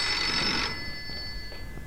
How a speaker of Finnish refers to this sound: Voi hitto. Nyt soittaa. Pitäisköhän vastata.